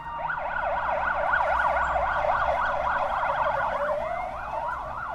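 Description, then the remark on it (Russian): Ambulance and police sirens wail together, one in a fast warbling yelp and another sweeping up and down, loud throughout with a low traffic rumble underneath and no voices. “Позже, когда скорая и полиция уехали”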